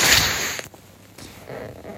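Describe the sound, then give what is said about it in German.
A forceful nose blow into a tissue: one loud, breathy rush of air lasting about half a second, followed by quieter rustling and faint snuffling. “Ähm, warte, ich muss kurz mal ins Taschentuch schnippen.”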